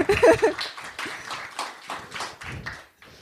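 A short burst of clapping from a small group, close and fairly loud at first, then thinning into scattered claps over about three seconds.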